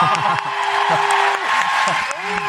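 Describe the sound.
Steady live audience applause for a contestant as the final result of a competition is announced, a dense crackling wash of many hands clapping at once, with voices calling out and whooping over it throughout.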